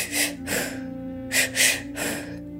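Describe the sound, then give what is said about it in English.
Someone demonstrates deep breathwork, taking quick, forceful breaths in and out through the mouth, filling the belly then the chest and blowing it out: five or so loud, airy bursts in a steady rhythm, with no talking. “So it's your, your stomach or your belly, then your chest. You blow it out.”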